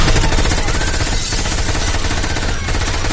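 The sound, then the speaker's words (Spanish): Sustained automatic gunfire, a machine gun rattling off rapid, evenly spaced shots in a loud, unbroken stream for several seconds with no voices. The gunman is the rear passenger of a motorcycle who got off and crossed the street to a café window. “La persona que viaja detrás baja de la moto con una ametralladora.”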